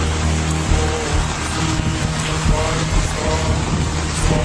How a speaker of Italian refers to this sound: Mancano pochi minuti a mezzogiorno, Genova è sotto un violento acquazzone.